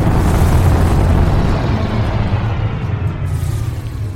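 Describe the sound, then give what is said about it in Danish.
A loud space rocket launch blast sound effect roars continuously, a thick rumbling wall of noise with heavy low-end power that eases off slightly over its four seconds without stopping. No voices. “Vi er altså ikke klar til at tænde rumraketten endnu.”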